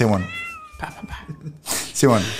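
A cat meows a few times, with long, wavering high-pitched cries, loud and clear, broken by brief pauses and some faint background noise.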